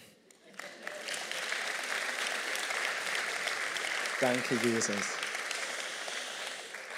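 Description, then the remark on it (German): A large church audience breaks into steady, sustained applause for itself that fills the space and keeps going, while a single voice briefly calls out over the clapping near the end. “Und äh, lasst uns doch uns selber einen Applaus geben.”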